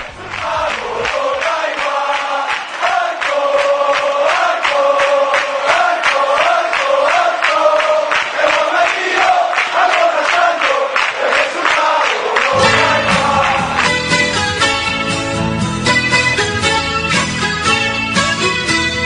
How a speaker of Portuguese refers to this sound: Então vamos ouvir aí a torcida do Cádiz cantando Álcool.